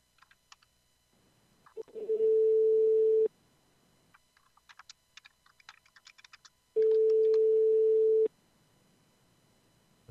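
Two long, steady ringback tones from an outgoing phone call that goes to voicemail, each lasting over a second, separated by a pause filled with light tapping clicks like typing. No one speaks.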